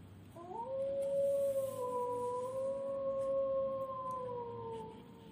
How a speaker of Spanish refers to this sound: Los lobos fijaron sus miradas en esa extraña luz y comenzaron a aullar.